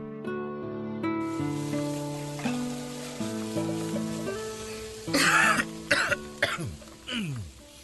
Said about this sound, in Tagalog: Mukhang sama niyang ubo mo ah.